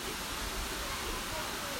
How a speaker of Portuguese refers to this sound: Enfim, aí eu tô aqui no, na, na cachoeira, né, cara? Não sei se dá pra ouvir aí.